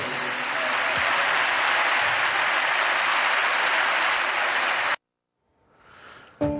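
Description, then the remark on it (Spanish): Stadium crowd applause from Sevilla supporters: a dense, steady roar of clapping that holds loud for about five seconds, then cuts off abruptly into near silence before a faint swell and a brief burst at the end. “Este aplauso es tuyo también.”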